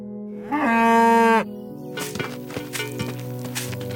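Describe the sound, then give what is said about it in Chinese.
A single loud, drawn-out moo from a dairy cow with a rich harmonic tone lasts about a second, followed by quieter scattered knocks and rustling noises. “杰克，家里一点面粉都没有了，你把咱家的奶牛牵到集市上去卖了吧，要卖一个好价钱啊！”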